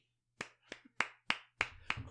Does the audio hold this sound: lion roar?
no